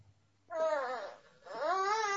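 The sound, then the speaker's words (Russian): A small baby babbles in two drawn-out, sing-song vocal bursts separated by a short pause, fairly loud, with no adult speech. “Поэтому ребенок, ребенок маленький, ребенок маленький.”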